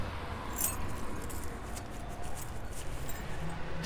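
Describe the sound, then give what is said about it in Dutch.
House keys jangle in several short, bright metallic bursts spread across a few seconds, fairly soft against a steady low background rumble, with no one speaking. “sinds 1 augustus heb ik de sleutels.”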